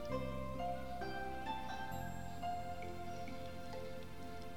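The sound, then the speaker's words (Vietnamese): Steady night rain in the mountains patters softly and continuously beneath gentle sustained musical tones, with no voices, the whole scene low and even in volume. “gió núi cuốn tàn tro phiêu tán vào trong mưa đêm”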